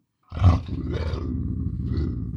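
A deep, menacing lynx growl rumbles steadily for about two seconds after a brief silence, loud, with a rough, throaty texture and no talking.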